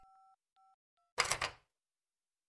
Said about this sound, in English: picked up her phone from the table and dialed 911.